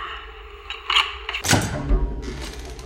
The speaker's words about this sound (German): Ich bin jetzt am Fahrstuhl. Und jetzt öffne ich die Tür zum Schutzraum.